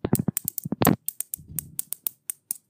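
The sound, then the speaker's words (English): Two coins are struck together over and over, making a quick, irregular run of sharp, bright clicks, with no talking. “That was me banging two coins together.”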